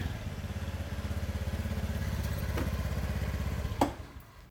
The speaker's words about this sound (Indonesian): Kami mencegat becak mesin.